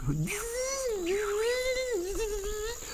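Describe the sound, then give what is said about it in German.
A voice imitates a mosquito's whine with a thin, sustained nasal buzz lasting about three seconds. The pitch wavers and dips slightly but stays continuous. It is fairly loud, with no other talking. “Mücken ja, das sind ja auch die Arschlöcher.”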